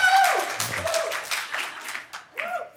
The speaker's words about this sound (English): Yeah, I know, cheap applause, cheap applause.